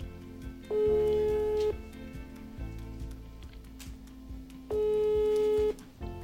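A telephone ringback tone purrs twice, each steady one-second beep separated by a few seconds of pause, heard while calling, with soft background music running underneath.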